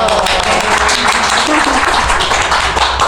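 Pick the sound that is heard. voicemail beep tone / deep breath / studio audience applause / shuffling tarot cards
studio audience applause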